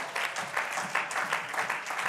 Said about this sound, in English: Can you clap your hands all across this place?